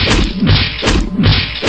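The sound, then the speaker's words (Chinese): Heavy blows from a metal bat smashing into zombies' heads, one blow each for four zombies, a loud wet crunch and thud repeating roughly every second, each hit landing hard with no voices. “一棒一个，干净利落的打碎了四个丧尸的脑袋。”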